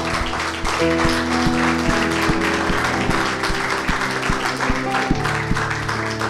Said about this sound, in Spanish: Dale un aplauso al Señor.